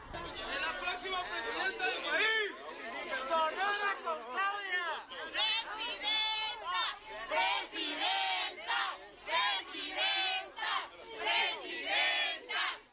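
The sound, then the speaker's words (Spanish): A large crowd of Morena, PT and PBN supporters in Sonora, Mexico, chants and cheers in loud, rhythmic bursts of "Presidenta, Presidenta" amid music and dancing. Voices rise and fall together in repeated shouts over a dense babble of many people. “Este miércoles llegó a Sonora, donde fue recibida con entusiasmo por militantes de Morena, el PT y el PBN, e quienes le brindaron una calurosa bienvenida entre música, baile, abrazos y porras al grito de Presidenta, Presidenta.”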